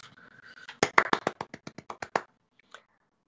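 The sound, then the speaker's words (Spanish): A single person claps about a dozen times in a quick, steady rhythm, fairly loud, followed by a short pause and one faint tap. “Felicitaciones y un aplauso para mí, un aplauso para myself.”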